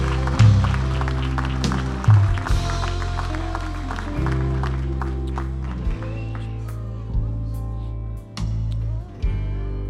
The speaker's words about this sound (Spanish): Dele un fuerte aplauso. Give the Lord a strong applause.